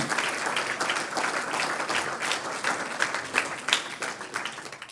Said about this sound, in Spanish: No dice uno de los señores, dice el Señor. Un aplauso al Señor, aleluya.